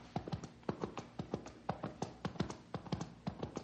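Hooves of a horse carrying a rider clip-clop in a steady, rhythmic gait, each sharp knock arriving in quick pairs and groups, moderately faint, with no voices present.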